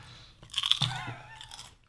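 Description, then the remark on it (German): Crunch Chips crisps eaten as a snack on the way to the car, crunched and chewed: a burst of sharp, crackly bites followed by softer, wetter chewing that fades out after about a second and a half, with no talking. “Schön nochmal reinschmatzen.”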